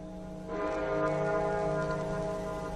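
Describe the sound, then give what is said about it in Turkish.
A bell strikes about half a second in, and its deep, rich tone rings out loud and sustained, humming steadily with layered overtones until the end. No voices are heard. “Ah, bu da bir çan ki...”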